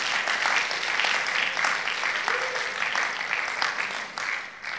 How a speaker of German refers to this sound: Geben wir doch mal nochmals einen herzlichen Applaus für das, was wir als Gemeinde hier leben dürfen.